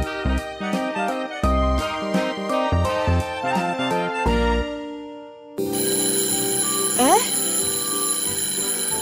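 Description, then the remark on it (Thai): An electronic school bell plays a bright, rhythmic chime melody of repeated ringing notes for about five seconds, signalling time to go to class, then gives way to a busier, noisier stretch with a rising whistle-like sweep. “เสียงออดดังแล้ว อุ้ยต้องไปเข้าเรียนแล้วล่ะค่ะ”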